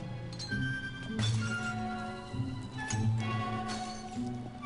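Glass pop bottles clink and knock together several times as someone tries to open them, with bright ringing tones and a sharp cracking of breaking glass. The sounds are clear, with no voices.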